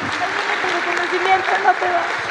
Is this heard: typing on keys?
no